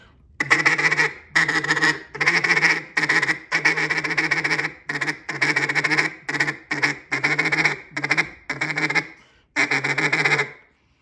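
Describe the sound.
A duck call blows a loud rattling feed chatter, imitating the chatter ducks make when flying: quick runs of clipped, buzzy quacks in about a dozen bursts separated by brief pauses, with no talking.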